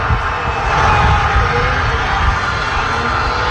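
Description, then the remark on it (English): A large outdoor street crowd in Argentina cheers and roars continuously after Argentina's World Cup win, a dense, loud wall of overlapping voices and noise with no pauses, heard through an open window. “Complete cheering and chaos.”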